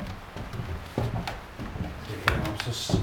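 A car door is eased shut so as not to scare red deer, in the Tofte area near the Kattegat coast of Denmark: a soft, muffled thud and a few light clicks, quiet, with low murmuring voices in the background.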